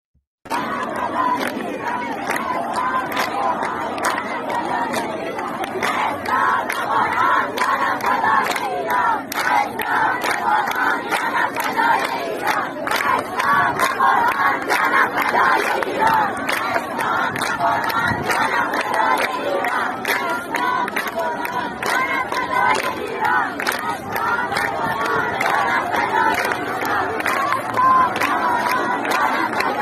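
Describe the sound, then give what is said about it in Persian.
A large crowd of people in Izeh, Iran, at the fortieth-day memorial of Hamed Salahshour's death, shouts the slogan "No Islam, no Quran, my life for Iran" in unison, loud and continuous for about thirty seconds, with rhythmic rising and falling bursts of many voices chanting together. “نه اسلام نه قرآن جانم فدای ایران این شعاری بود که مردم ایزه همین چند روز پیش بر یاد بود یکی از عزیزان سلحشورشون با نام فامیلی سلحشور فریاد زدند بشنویم اون رو”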